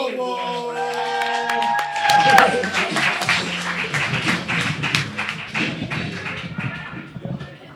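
An audience at an event claps steadily and loudly to welcome a talented artist, with whoops and cheers rising over the dense applause, which builds after a brief musical or vocal opening and carries on to the end.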